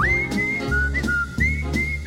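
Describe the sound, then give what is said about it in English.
A person whistles a sustained, bird-like melody with small pitch slides and trills, clear, over a steady low background of music with periodic soft beats. “Oh, he whistles pretty. Yeah, like a bird.”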